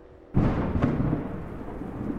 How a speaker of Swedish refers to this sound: Det kyliga regnet börjar smattra omkring er. Det är kallt och obehagligt här. Allt annat än gästvänligt.